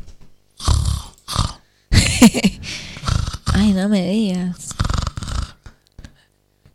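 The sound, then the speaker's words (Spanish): A voice mimics a woman snoring with a few rough, snorting bursts and a wavering drawn-out tone, fairly loud, mixed with brief talking. “Y se da vuelta y me mira, me dice, me desperté porque me escuchaba roncar yo misma.”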